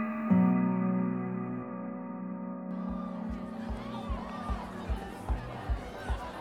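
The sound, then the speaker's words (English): A held musical chord gives way to a large crowd roaring and cheering in an arena, with loud, steady rhythmic stomps or claps thumping about twice per second underneath the din. “Wow, what a crowd we've got going today!”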